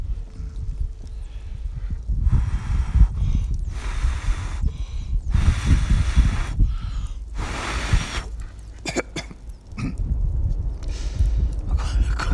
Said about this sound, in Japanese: このね焚き火の音入ってるかな焚き火の音